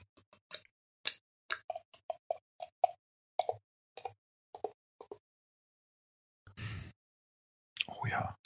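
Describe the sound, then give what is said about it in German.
Ratsherrn Küsten-IPA beer glugs out of a bottle as it is poured, in a quick, uneven run of hollow plops, fairly loud, then a brief fizzing rush of pouring and a short burst of sound at the end. “Und ja, es ist, ich werde es jetzt mal einschenken.”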